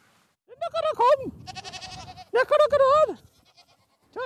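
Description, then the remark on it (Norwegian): Several goats on a goat farm in Misvær, Bodø municipality, Nordland, Norway, bleat loudly, their wavering, nasal cries overlapping in two bursts separated by a shorter quavering call. “Geitebonde Knut Inge Johansen i Misvær i Nordland har mm. en plan. Har dere det bra?”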